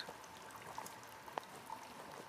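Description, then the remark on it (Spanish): Steady, soft rush of flowing water from a mountain waterfall at night under a clear starry sky, with a few brief drip-like plinks rising above the continuous wash. No voices. “Sentís el sonido del agua y ves que a unos metros de la cascada hay una señora sentada al lado de una pequeña fogata.”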